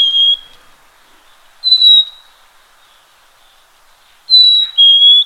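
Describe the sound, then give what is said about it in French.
A black-capped chickadee sings its clear, pure whistled notes, a sweet two-note phrase with the second note slightly lower, repeated a few times with quiet pauses between, alone. “Ici, on va avoir le chant typique de la maison à tête noire.”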